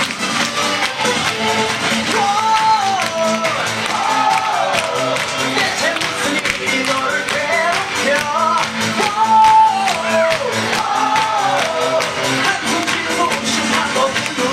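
A crowd claps and cheers steadily, a dense, loud wash of applause lasting the whole stretch, with rising and falling shouts and whoops cutting through the clapping.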